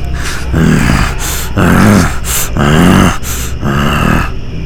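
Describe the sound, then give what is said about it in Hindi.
A low, menacing animal growl rumbles in repeated surges, growing louder, each swell rougher than quiet breaths between, heavy with no one speaking. “वो आवाज़ फिर चली और फिर से कमरे का जायज़ा करते हुए मुआयना करते हुए सामने वाले दरवाजे के बाहर आके रुक गई और अब ये गुर्राने की आवाज़ बढ़ गई थी”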